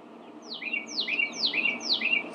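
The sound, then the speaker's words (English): A bird chirps repeatedly in the room, giving four quick descending tweets in a steady rhythm over a soft, low background hum, with no one speaking. “Why, bird? Why? Why you be be quiet? I'm tr- I'm trying to record.”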